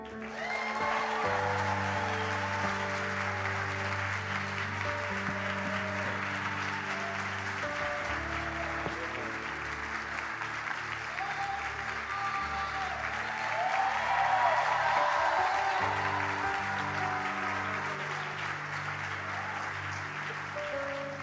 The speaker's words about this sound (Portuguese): E eu quero que você faça muito barulho para Jesus